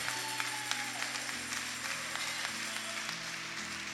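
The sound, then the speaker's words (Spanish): An audience applauds steadily for God, a dense wash of clapping with a few sharper claps standing out, while sustained keyboard chords hold underneath. No one speaks. “Y si lo va a aplaudir, hágalo fuerte, porque es para Él.”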